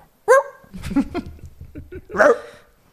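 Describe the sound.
A person imitates how their own dog, which does not bark, might bark, with two loud, sharp vocal barks separated by a second or so of lower, muffled murmuring.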